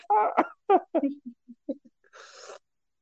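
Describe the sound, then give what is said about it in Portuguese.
Heavy breathing from a person on a call comes through as a short, harsh hiss over the line, following a few choppy vocal bursts like coughs or laughter. “Ele tá, ele tá numa respiração forte ali que eu tô só ouvindo chiado só.”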